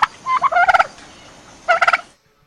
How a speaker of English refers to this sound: Well, I, have never heard a turkey do karaoke.